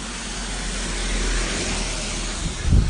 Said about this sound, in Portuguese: Ó, agora está passando um carro.